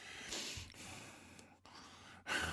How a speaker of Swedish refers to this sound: Alltså när jag, när jag har pratat färdigt när jag sagt nu kastar vi loss så kanske det dröjer en stund innan jag trycker på paus på inspelningen och då hör, man, då hör jag mig själv andas.